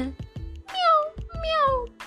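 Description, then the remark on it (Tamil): A kitten meows twice in quick succession, high-pitched and falling in tone, each cry drawn out, preceded by a few soft low thumps. “பூனைக்குட்டிக்கு நிறைய நண்பர்கள் குயில் வண்ணத்து பூச்சி அதில் இந்த வண்ணத்து பூச்சியை சுற்றி சுற்றி சுற்றி சுற்றி பிடிக்க முயற்சி பண்ணி உடற்பயிற்சி செய்கிறது”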